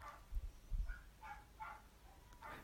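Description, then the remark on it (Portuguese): Faint dog barks in the background, a handful of short yaps spaced irregularly over a couple of seconds, with a few soft low thumps and no one talking. “Tipo, não sei se vocês estão a ouvir tipo no fundo cães a ladrar, mas tipo, se estiverem a ouvir, oh, ouçam, esperem aí.”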